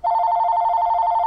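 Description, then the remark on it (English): A telephone rings loudly with a steady, warbling electronic two-tone trill. It sounds alone and without pause for the whole short moment, with no voices. “Warranty, warranty call time.”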